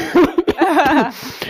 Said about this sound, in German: Muss ich erstmal husten.